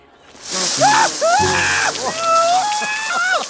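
A steady hissing spray of water splashes continuously for a few seconds, loud and close, with high, gliding voices sounding over it.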